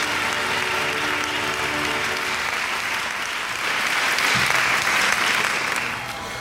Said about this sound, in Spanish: Qué ganas, ¿verdad? Muchas ganas de aplausos, se necesitan ya.